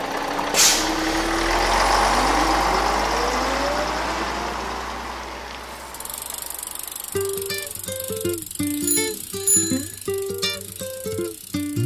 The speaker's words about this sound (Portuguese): Bom, então vamos aproveitar que o ônibus passou e pegar uma carona para o intervalo.